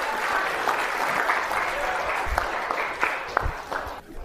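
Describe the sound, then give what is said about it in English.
A church audience claps steadily in a dense wash of applause, holding at a fairly loud level for a few seconds before starting to thin out at the end. “Oh man, big round of applause.”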